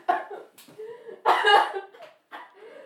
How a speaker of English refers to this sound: We're going to pause here while … has a coughing fit.